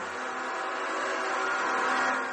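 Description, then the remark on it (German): Bus drivers honk their horns through the streets of Guatemala City during protests, a dense, steady blare of overlapping tones over loud traffic rumble, with passengers whistling and shouting, holding without pause for a couple of seconds and swelling slightly toward the end. “Busfahrer hupen durch die Straßen von Guatemala Stadt, Passagiere pfeifen und schreien ihren Unmut hinaus.”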